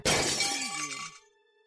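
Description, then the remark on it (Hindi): A cricket ball, hit with a bat during an evening cricket game, crashes into an old, derelict house with a loud, sharp burst of shattering glass. Bright tinkling, ringing tones follow and fade out within about a second, with no voices. “वो बॉल सीधा हवाओं को चीरती हुई एक विराम से घर में दस्तक दे देती है”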